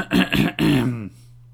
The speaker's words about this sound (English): as I clear my throat to perform it.